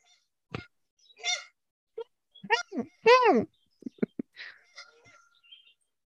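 A giant flock of geese honks outside, coming over toward a window, a scattered series of loud, nasal calls overlapping irregularly, some brief and clipped, one longer and drawn out, with short quiet gaps between.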